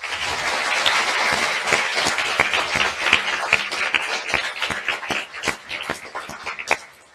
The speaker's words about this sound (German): Und zuerst möchten wir euch alle in ganz Österreich mit einem ganz herzlichen und lauten Applaus begrüßen.